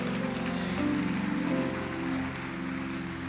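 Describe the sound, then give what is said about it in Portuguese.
An audience applauds the Lord Jesus in a dense, steady wash of clapping that holds for several seconds, with a low sustained musical tone humming underneath. “Aplauda o Senhor Jesus.”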